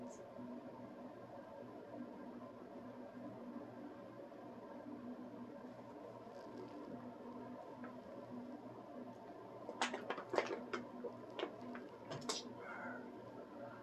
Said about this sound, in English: Drinking that good old water, baby clear my throat.